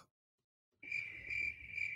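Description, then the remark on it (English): Crickets chirping in a steady, high-pitched trill that swells in gentle pulses, starting after a brief moment of silence and continuing fairly loud, with no voices. “That's all you hear is crickets.”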